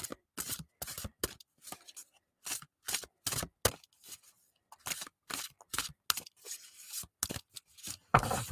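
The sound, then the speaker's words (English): A deck of music oracle cards being shuffled, with a rapid series of short papery riffles and slaps in an uneven rhythm, heard on its own without any talking. “So just doing a quick little shuffle here.”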